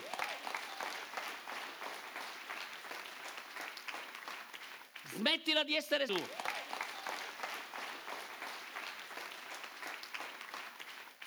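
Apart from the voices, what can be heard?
audience applauding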